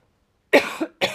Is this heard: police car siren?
no